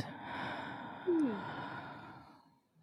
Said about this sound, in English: Taking three deep breaths in together to connect our energy, breathing in and breathing out. Breathing in again. And out.